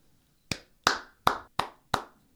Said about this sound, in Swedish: Fick en applåd.